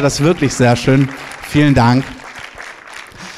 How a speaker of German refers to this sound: Gebt mal einen Applaus.